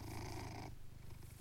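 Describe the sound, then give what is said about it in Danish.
A domestic pet cat purring in a steady, rumbling rhythm of pulses, fuller and brighter for the first half second, then softer and lower for the rest, with no voices. “Det her er lyden af min kat, der spinder.”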